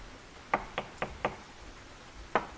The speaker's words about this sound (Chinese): 这时，门外好像传来了敲门声。不会吧？谁会在这个时候来呢？